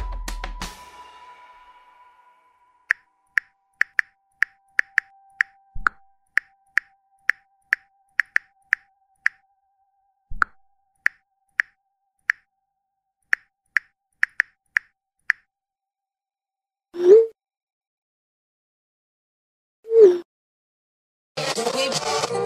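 A rapid series of short bright plops and pings, like incoming message notifications, as a judge exchanges messages with a prosecutor, repeating irregularly, followed by a couple of softer swooping tones and a burst of noise at the end.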